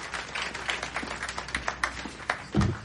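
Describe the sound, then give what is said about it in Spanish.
An audience seated at tables claps as a host introduces Arthur Fleck, a dense patter of many hands at moderate, steady loudness, with a heavier low thump near the end. “Por favor, un fuerte aplauso para Arthur Fleck.”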